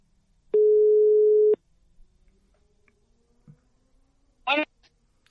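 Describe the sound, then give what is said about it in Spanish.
A single loud, steady phone ringback tone lasts about a second as a call is placed to a woman to talk about her experience with COVID, followed by a quiet pause before a brief voice answers at the end. “le vamos a, echar una llamadita.”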